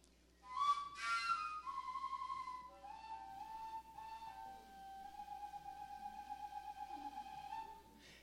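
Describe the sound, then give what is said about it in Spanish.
A PVC fujara overtone flute, a large flute adapted from a plastic hose that works with harmonics, plays sustained, breathy tones stepping between a few pitches, starting with an airy burst and then holding long notes, moderately loud over a low steady hum. “Este es una adaptación en PVC, en eh, una manguera de plástica, y es una gran flautota que trabaja con armónicos”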